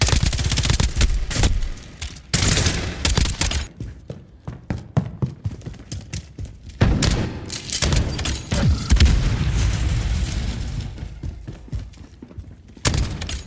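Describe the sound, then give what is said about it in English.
Loud, rapid bursts of gunfire from a military-style shooter video game crackle in dense volleys, broken by heavy booming explosions, with a brief lull before the firing picks up again. No one speaks. “Now, what you're hearing right now is some audio from the game. It's lots of gunfire, lots of explosions, lots of running around.”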